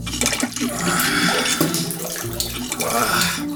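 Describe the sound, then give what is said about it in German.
Water splashes and sloshes in a bidet filled to the brim, a steady, fairly loud wash of sound with small surges throughout. “Skeptisch musterte Marco das bis zum Rand mit Wasser gefüllte Bidet und setzte sich nach einiger Überwindung.”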